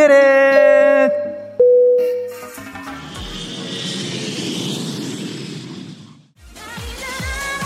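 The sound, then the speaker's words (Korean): A few electronic chime-like tones give way to a loud jet engine roar that swells and rushes for several seconds, like an airplane taking off, before cutting out into tonal music. “자 그럼 비행기 이륙합니다.”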